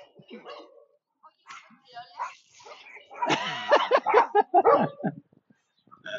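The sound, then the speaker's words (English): A dog barks and whimpers, a run of sharp yips and whiny cries that grows louder and more insistent over several seconds before trailing off. “Because the dog was quite mad at us.”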